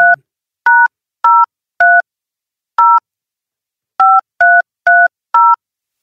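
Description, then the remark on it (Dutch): A phone number being dialed: a run of nine short touch-tone beeps, each a steady two-note electronic tone, in uneven bursts with brief pauses between, fairly loud and with no one talking. “Zullen we eh, raven, eens bellen?”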